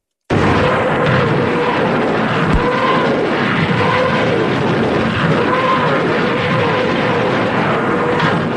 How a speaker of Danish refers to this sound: Det vi hører her, det er tysk artilleri, de såkaldte Nebelwerfer.